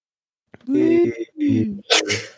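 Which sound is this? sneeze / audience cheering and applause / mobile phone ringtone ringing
sneeze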